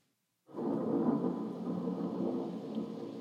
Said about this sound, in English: This is a storm in the high Atlas.